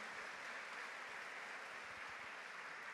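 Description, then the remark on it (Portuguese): A church audience claps steadily, a dense, continuous wash of many hands applauding together for several seconds, with no voices standing out above it, as two women are welcomed into the church. “Você pode aplaudir o Senhor pela vida das nossas irmãs.”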